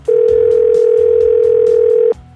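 signal or alarm, telephone dial tone

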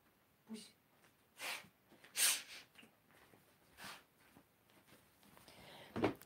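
human body sound, nose sniffling

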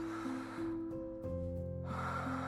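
human body sound, deep inhale

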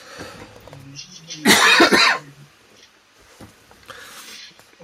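human body sound, coughing

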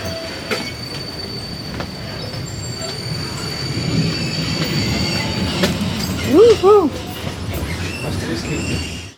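vehicle, tram passing by

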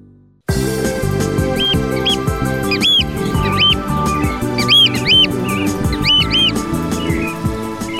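bird, eurasian oystercatcher calling

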